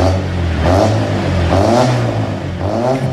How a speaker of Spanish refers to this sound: Por eso nosotros encendemos el motor de este 504, un poco viejo y oxidado, pero que es un fierrazo y te lleva a todos lados.